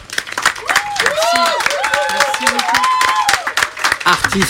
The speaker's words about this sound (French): merci à … qu'on applaudit très fort